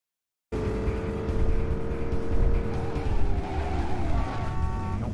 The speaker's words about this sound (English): so I went to go take a turn and I hit a car. This is when I was chasing Jericho for the first time to the compound.